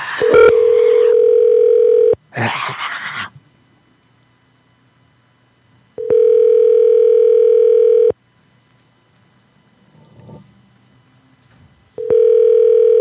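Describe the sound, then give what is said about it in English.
A telephone call to a shop rings out: three loud, steady electronic tones, each about two seconds long, separated by pauses of several seconds, with a brief rustling burst after the first tone. “Mm, this one is not on the coast that I thought it was, judging by the phone number. But let's check it out.”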